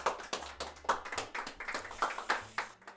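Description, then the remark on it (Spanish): A burst of applause from a group welcoming a guest on a show, many hands clapping in a dense, steady patter that stays fairly loud and even for about three seconds, with no voices over it. “Un aplauso para él.”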